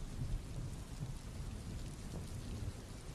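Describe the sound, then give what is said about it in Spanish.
A steady thunderstorm with heavy rain hissing across the spectrum and a deep low rumble of wind and thunder underneath, continuous and fairly loud throughout, no voices present. “En ese momento, un, fuerte viento y una tormenta se desata y te impide alcanzarla.”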